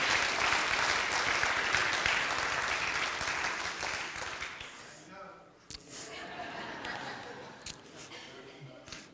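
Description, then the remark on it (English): An audience applauds after a Christmas sermon, a dense burst of many hands clapping that fills the room for several seconds before thinning out and fading, leaving scattered claps and murmuring voices. “And whoever clapped, that was awesome.”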